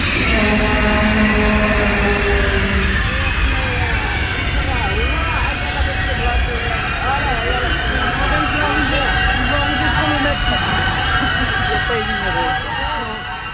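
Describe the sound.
A train rolls steadily on its rails with a continuous loud rumble and a high, sustained whine. Wavering squeals and indistinct murmuring voices sit underneath throughout.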